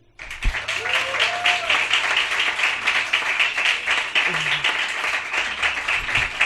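A crowd applauds steadily to welcome a performer, a dense wash of many hands clapping that stays loud and even for several seconds, with a few faint voices and whoops mixed in.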